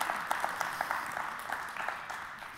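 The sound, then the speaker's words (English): A crowd claps together, a steady wash of hand claps with sharper individual smacks popping out at a fairly even pace, sustained and moderately soft, with no voices over it. “I hope that bears witness witness with you as family, and I hope you're about to shout and clap and dance and declare with me in agreement.”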